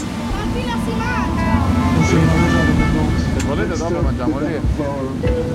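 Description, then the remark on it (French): A river boat bus on the Seine in Paris, passing Notre-Dame, chugs steadily along the water, its low engine rumble and water noise continuous throughout, with people talking over it. “qu'est-ce que tu penses de la vue depuis le bateau-bus”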